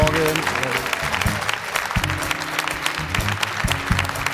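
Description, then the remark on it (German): Steady applause from a studio audience on a Sport1 football talk show as the guests are welcomed, many hands clapping in a dense, continuous patter for a few seconds, with faint musical tones sustained underneath. “Und rasant gehen wir über mit dem Beifall direkt zur Jana und Frage der Woche.”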